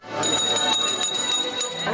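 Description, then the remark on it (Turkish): A school bell rings loudly and continuously, a sustained metallic jangle that starts abruptly and holds steady, with a faint murmur of activity underneath. Turkish Education Minister Nabi Avcı rang it to open the new school year at Ankara Balgat Technical and Industrial Vocational High School. “Evet ve ilk zilimiz çalındı.”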